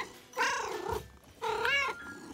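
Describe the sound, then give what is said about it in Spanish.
Two drawn-out, high-pitched mews from Pelusa, the smallest kitten of a litter, follow one after another, each about half a second long, fairly loud over a faint low rumble. “Pelusa estaba todo flacucho y escuálido y se la pasaba chille y chille mientras sus hermanitos ronroneaban y jugaban.”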